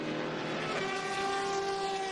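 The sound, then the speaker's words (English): The loud, high-pitched V12 engine of Christina Nielsen's Aston Martin GTD race car wails steadily over a broad rushing roar as it screams by, its tone holding strong for a couple of seconds with no one speaking. “As the Aston Martin, the distinctive sound of the Aston Martin GTD car of Christina Nielsen screams by that V12.”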